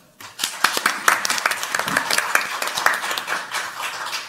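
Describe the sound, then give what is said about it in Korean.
A crowd applauds steadily for about four seconds, many overlapping claps forming a dense, crackling wash with sharp individual hand slaps popping out, sustained at an even level without talking. “다시 한 번 박수 한번 주십시오.”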